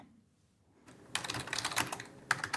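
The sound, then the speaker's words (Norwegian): Rapid typing on a computer keyboard at the city hall in Lillehammer, Norway, as a finance chief works through the municipal accounts: a steady patter of crisp key clicks that starts after a brief silence and continues with a few sharper taps, no voices. “taster seg frem i regnskapene på rådhuset i Lillehammer.”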